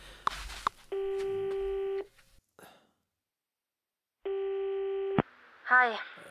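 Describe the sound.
A phone ringing on the line while waiting for an answer: two long, steady buzzing rings separated by a pause, with brief bits of speech just before and after.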